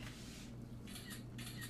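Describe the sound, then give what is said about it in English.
A phone's camera shutter sound plays loudly through a speaker the phone is still linked up to, as a picture is taken: a few short, noisy snapping bursts in quick succession over a steady low hum, with no one talking. “It's the sound of taking a picture.”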